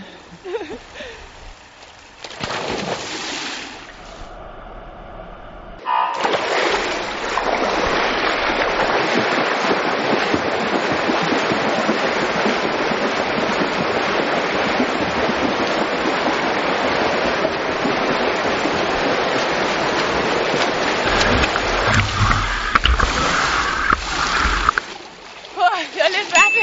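Steady, continuous splashing and churning of water from someone swimming 25 meters in a pool while wearing shoes, a dense rushing wash lasting about twenty seconds after a brief quieter start, with no talking.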